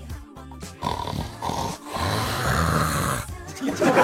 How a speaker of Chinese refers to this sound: 啊，你看旁边睡得跟死猪似的，你听听他呼噜声。